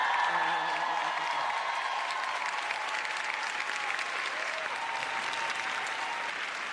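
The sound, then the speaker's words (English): A large audience applauds steadily in a standing ovation for Nick, a guest seated in the audience of a show, a dense, sustained wash of clapping that stays loud throughout with faint cheers mixed in. “We're standing up for Nick.”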